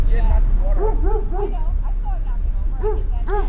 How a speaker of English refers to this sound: the chain is wrapped around the tree several times, which severely restricts his movement. He can basically only jump upwards and bark.